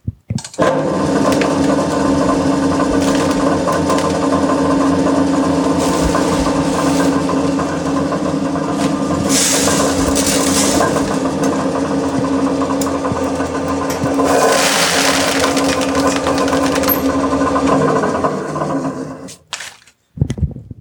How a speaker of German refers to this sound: Genau, jetzt machen wir kurz die Malzmühle an. Das ist eigentlich so der allererste Produktionsschritt, wenn es ans Brauen geht. Ein Tag vor dem Brautag wird immer das Malz, Malz frisch geschrotet. Das hört sich so an.